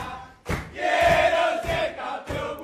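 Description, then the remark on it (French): A group of Argentine football players loudly sings a football chant in Spanish in the dressing room after their last match, about wanting to win a third World Cup title; sustained notes swell between rhythmic, punchy bursts. “Euh, c'est un chant, donc il chante en espagnol, je vais vous traduire en même temps, mais c'est un chant euh, qui est touchant”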